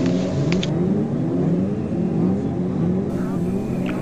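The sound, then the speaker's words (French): An intro jingle built on a loud engine revving and accelerating, its pitch climbing in repeated sweeps for a few seconds with no one speaking over it. “Ah, qu'est-ce que ça fait longtemps qu'on n'a pas entendu ce jingle quand même.”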